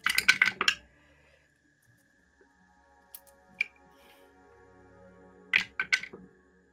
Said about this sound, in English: Oh, I should have prepped these. there you go. It's okay. You don't have to use so many dice. I don't have to use so many. It's, Not so many. there we go. I got them.